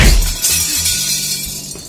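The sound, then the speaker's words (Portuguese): Window glass shatters in a loud, bright crash as Rúlio is thrown through the window with two feet, followed by a continuous spray of tinkling shards and debris that carries on for about two seconds, with no voices. “no momento em que a, que a Vivian ela segura as duas mãos numa cadeira e com os dois pés ela atira o Rúlio por uma janela”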